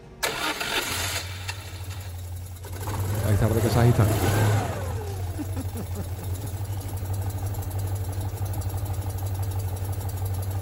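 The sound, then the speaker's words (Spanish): An old Citroën 2CV, with two loudspeakers fitted on its roof rack and heading to the seafront promenade in Marbella, turns over and settles into a steady, low, chugging idle, with a brief rise in revs early on before the even drone carries on to the end. “El Chano ha cogido su viejo Citroën dos caballos en cuya vaca ha instalado dos altavoces.”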